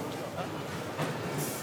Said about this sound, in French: Écoute. La gare grouille de nouveau ce matin.